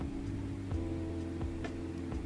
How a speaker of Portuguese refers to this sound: o ventilador que vai para lá e para cá ventilando meu corpo na minha cama de casal.